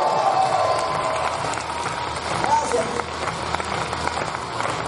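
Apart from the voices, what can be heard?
audience applause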